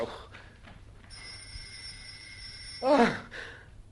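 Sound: doorbell ringing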